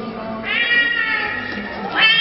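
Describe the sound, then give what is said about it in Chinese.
A person imitates the meow of the family's stray cat, Hengang (横纲), giving a drawn-out, nasal mew that rises and wavers, then a second rising meow at the end, moderately loud with no other talking. “所以呢，我就让他模仿一些动物的声音，好吗？”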